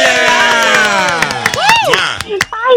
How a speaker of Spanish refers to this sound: El aplauso para